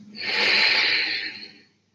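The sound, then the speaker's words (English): A single long, airy exhale, fairly loud, rushing out steadily for over a second before tapering off into silence, with no talking; a person breathing out after one deep breath while sitting in meditation. “You can begin by taking one deep breath, then breathing out”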